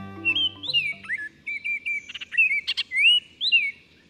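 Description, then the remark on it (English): A Baltimore oriole sings a rich, whistled song of clear slurred phrases, fairly loud, with brief chirps between notes and a faint low hum underneath at the start. “Songbirds like this Baltimore Oriole thrive on a steady diet of scrumptious caterpillars that are often found on trees lining city sidewalks.”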